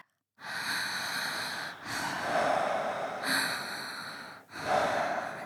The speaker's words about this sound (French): la respiration s'accélère.